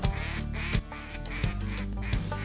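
Ducks quack loudly and steadily, with a dense run of nasal calls and a few sharper bursts standing out about every three quarters of a second. Nobody speaks.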